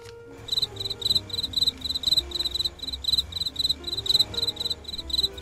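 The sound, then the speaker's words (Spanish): Crickets chirp in a steady, rapid pulsing rhythm, bright trills repeating evenly throughout, with a low murmuring background hum beneath them and no voices. “pero suenan como, como grillos a la radio. Claro, porque eso fue lo que sonó. Grillos.”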